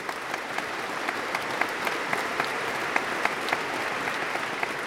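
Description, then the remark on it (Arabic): A crowd of townspeople claps steadily and continuously at a celebration as a troupe dances to music, a dense patter of many hands with sharper individual claps popping out now and then, moderately loud, with no talking. “ملأت صوت الأغاني البلدة وبدأت الفرقة بالرقص على إيقاع الموسيقى وأهالي البلدة يصفقون ويوزعون الحلوى والأرز المعد للاحتفالات الرسمية”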